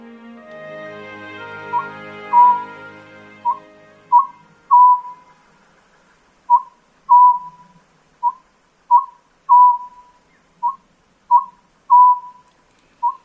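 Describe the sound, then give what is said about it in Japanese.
An Oriental scops owl, a small palm-sized owl, calls again and again at sunset from the forest beside a dam lake in northern Nikko, Tochigi Prefecture, Japan, with short, clear mid-pitched hoots in repeated groups of two or three notes. A soft, low hum at the start fades away. “日が沈むと同時に栃木県日光北部にあるダム湖のほとりの森の中からこの葉ずくの鳴き声が聞こえてきましたこの葉ずくは手のひらに乗るほどの小型のフクロウの仲間です”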